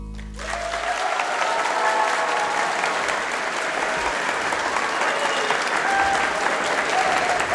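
Sustained applause from an audience of about 350 students at Frederikssund Gymnasium, a school, a dense, steady clatter of many hands clapping at a constant loud level from start to finish, with no voices on top.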